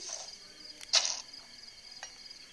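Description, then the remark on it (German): A quick, hissing whoosh of an arrow being loosed in a video game, a bright airy burst near the middle over a faint high background hum, with a softer flick just after. “Ein Pfeil verschwendet, was hier sehr viel ist.”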